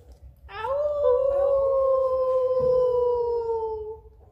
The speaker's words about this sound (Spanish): ¡Y acá está el lobo!